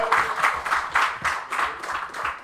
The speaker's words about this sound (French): Une bonne main d'applaudissement, s'il vous plaît!